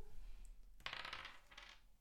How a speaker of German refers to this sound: Ja, aber gut, dann werde ich mal weiter würfeln, denn wir haben noch zwei Kandidaten.